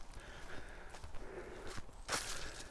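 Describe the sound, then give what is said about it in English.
A man's footsteps crunch along a path in the woods at an unhurried, slightly uneven pace, as if over leaves and twigs, fairly quiet with a soft outdoor hiss behind them and no voices. “Man walks in woods, loses train of thought.”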